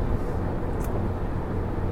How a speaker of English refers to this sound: Here I'm driving along.